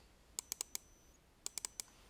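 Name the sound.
computer mouse button clicking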